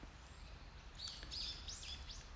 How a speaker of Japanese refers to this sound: うわすごい鳥がすごいいるやっぱ朝っていいですね